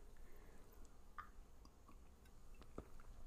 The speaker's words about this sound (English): Just sipping my tea.